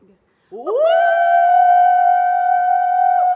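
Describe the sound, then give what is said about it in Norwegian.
Two people let out a loud, sustained high-pitched scream together to show a room's good acoustics, with the microphone moved a little away, rising quickly and then holding one steady, almost sung note for about three seconds, piercing. “nå lurer de i studio på om vi kan bare eh, illustrere hvor god akustikk det er. Så hvis vi tar mikrofonen litt vekk, og så bare skriker vi begge to, bare sånn at vi hører”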